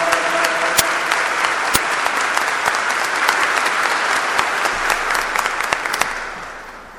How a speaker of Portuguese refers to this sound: Acabamos de aplaudir a palavra de Deus.